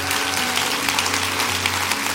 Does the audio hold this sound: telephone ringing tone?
no